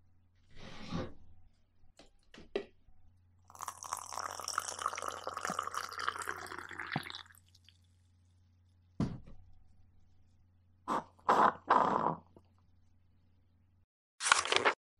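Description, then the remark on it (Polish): Water runs steadily for a few seconds, filling a kettle for tea, framed by scattered clicks and knocks of handling before and after, with no one speaking. “Przy okazji to dobry moment, aby nastawić sobie wodę na herbatę.”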